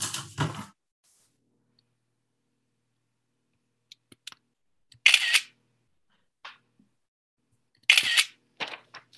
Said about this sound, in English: Big click. Can you hear my screen grabs happening? The Everybody very loud screen grab. I apologize for that sound in your ears.